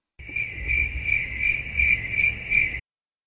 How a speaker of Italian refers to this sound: Magari mettiamo dei bei grilli così la gente ci compiace.